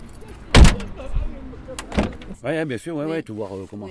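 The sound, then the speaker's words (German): The door of a black taxi van in La Monnaie slams shut with a heavy thud, a second lighter clunk follows moments later, and then a person begins speaking. “Patrick holt mich mit seinem schwarzen Taxivan in La Monnaie ab.”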